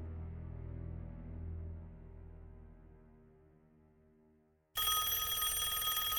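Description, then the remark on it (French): A low, droning tone fades out, then the Warrens' telephone bell abruptly bursts into loud, harsh, continuous metallic ringing for the last second and a half, bright. “Quelques années plus tard, la renommée des Warren fait à nouveau sonner leur téléphone.”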